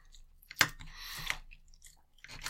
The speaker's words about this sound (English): There's some sounds that we haven't had yet. Intricate cutting.